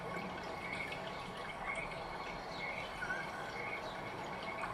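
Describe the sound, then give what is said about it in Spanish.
A river flows steadily, its soft, continuous rush and babble of water carrying on evenly throughout, with faint higher trickling sounds above the constant wash and no voices. “Delante de ti hay un río.”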